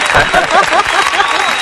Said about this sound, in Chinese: 这个很赞，也要来个掌声吗？